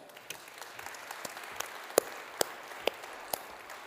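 Scattered applause from a small audience welcoming guests, with irregular claps popping out over a soft wash of clapping, steady for a few seconds, with no one talking.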